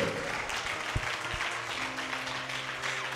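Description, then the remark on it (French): A crowd applauds steadily to acclaim God, a dense wash of many hands clapping at once with a few sharper claps standing out, and a faint murmur of voices beneath. “Oh, acclame Dieu Acclame Dieu”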